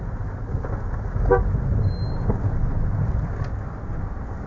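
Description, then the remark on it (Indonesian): A short car horn toot sounds over a steady low rumble of road noise, as if heard from inside a moving vehicle. No one speaks. “bentar, bentar, bentar. lagi di mobil”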